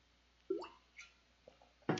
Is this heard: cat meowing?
no